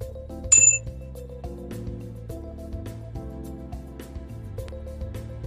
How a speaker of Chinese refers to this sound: 好，眼睛闭起来，我来敲碰钟的声音。